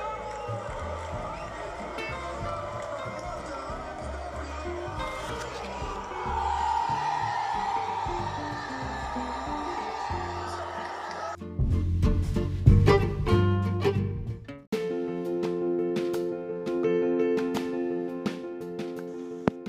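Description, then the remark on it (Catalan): Loud, continuous football stadium crowd roar with shouting and cheering just after a goal making it 3-0, swelling into dense rhythmic chanting and clapping from a large packed grandstand. “Oh, precisament nosaltres ens trobàvem al camp i ara podeu escoltar l'ambient que hi havia just després del 3 a 0.”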